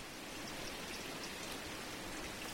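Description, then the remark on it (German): A small brook, the Parthe in the north of Leipzig, Germany, winding between meadows, flows with a steady, even rush of water, a continuous hiss with faint bubbling at moderate volume and no voices. “Der kleine Bach schlängelt sich zwischen Wiesen,”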